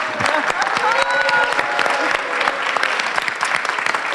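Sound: audience applause and cheering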